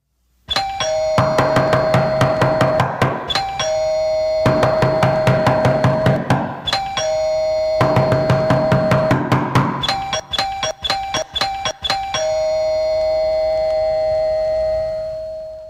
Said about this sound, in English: there are the, the knocks that your kids' friends do. They come over, right? They come over to see if your kids can come out and play, your, your, their friend, your kids' friends. They come over, and this is what that knock sounds like.